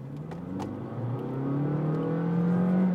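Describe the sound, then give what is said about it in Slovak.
A Honda Jazz Crosstar hatchback's engine revs hard under acceleration, its droning tone climbing steadily in pitch and growing louder over a few seconds, with no voices. “a už viem, čo bolo výrazný point pri predchádzajúcom jazze, že keď to vytočíš, tak ten motor znie strašne.”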